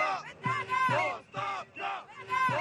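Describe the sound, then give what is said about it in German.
Hundreds of protesters in front of the parliament in Bulgaria shout a chant of "resignation" (Rücktritt) against the government in unison, loud rhythmic bursts of many voices rising and falling with short gaps between each repetition. “Vor dem Parlament brüllen Hunderte Rücktritt.”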